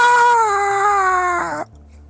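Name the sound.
man screaming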